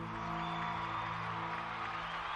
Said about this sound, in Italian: sembra piuttosto concentrata sui mega schermi allestiti da Lao Company lungo via della Conciliazione, dove sta parlando …, tra gli applausi scroscianti della popolazione.